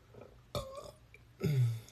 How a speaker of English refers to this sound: that burp is for you too.